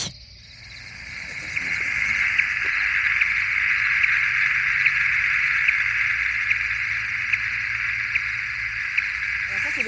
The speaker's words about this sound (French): Le petit bip, c'est le bruit que fait l'émetteur, donc c'est la chauve-souris qu'on a appelée 2.2, c'est son, son nouveau nom. C'est une femelle, donc euh, une femelle post-allaitante qui a fini donc d'allaiter son jeune.